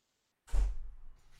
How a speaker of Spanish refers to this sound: justo llega además mi pareja por la puerta. Buenas.